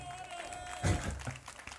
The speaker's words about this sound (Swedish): Det var en starkare applåd ja, vad härligt.